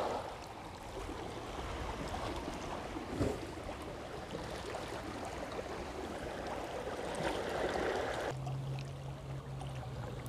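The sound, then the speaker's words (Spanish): Ocean waves wash steadily against the shore, heard from a garden facing the sea under a palm tree, in a continuous, close rushing roar that swells slightly toward the end, with no voices present. “De fondo y a la vez muy cercano me acompaña el sonido de las olas y el olor a libertad.”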